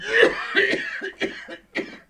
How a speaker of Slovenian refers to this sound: Kaj lahko v stran kašljaš? Da gremo, ker bomo vsi zboleli.